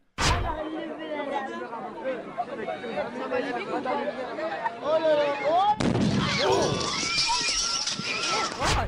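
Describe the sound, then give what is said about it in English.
Children chatter and shout in a lively crowd waiting for a bonfire to start, then a sudden loud explosion bursts in near the end as the bonfire, loaded with too much fuel, blows up, followed by a sustained roar of smashing, crashing debris as fences and everything fly everywhere, over the voices. “what's the smashing sound? No, there was fences, everything. went everywhere”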